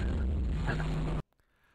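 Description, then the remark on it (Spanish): A loud, rumbling explosion sound effect from the end of an animated video roars with heavy low-end energy for about a second, then cuts off abruptly into near silence. “es así como un collage, así como de tres cuadros del final del video, con una explosión y, y se mueven así los títulos.”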